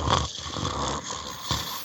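Rough, raspy snoring, several noisy breaths repeating about every half second at a steady moderate level, with no talking.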